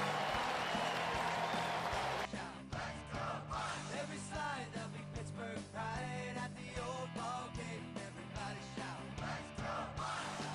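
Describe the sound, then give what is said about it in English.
A ballpark crowd and players on both the Pirates and Mets benches applauding McCutchen's 2,000th hit, a loud, steady wash of clapping and cheering with scattered yells and whoops that carries on without a break for about ten seconds. “Both benches, Pirates and Mets players applauding.”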